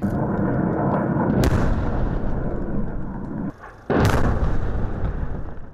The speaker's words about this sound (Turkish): Ateşkesin yürürlüğe girmesinden hemen sonra silah sesleri yükseldi. Bakü yönetimi Ermenistan ordusunun Terter ve adama ateş açtığını duyurdu.